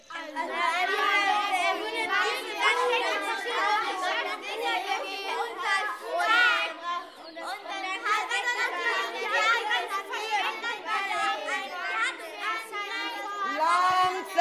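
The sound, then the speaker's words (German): A crowd of excited children chattering and calling out all at once, a dense, continuous babble of high voices with no single speaker standing out, fairly loud throughout. “Oh meine Güte, ich verstehe kein einziges Wort. Was seid ihr alle aufgeregt?”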